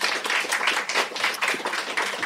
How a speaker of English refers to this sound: So um, a big round of applause